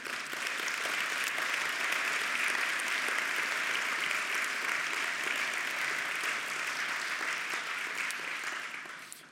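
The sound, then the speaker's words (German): An audience breaks into sustained applause, a dense, steady wash of many hands clapping at an even level for several seconds before tapering off, applauding the announced restart of a Bible school project from January. “Und das ist, finde ich, ein Mega-Applaus wert.”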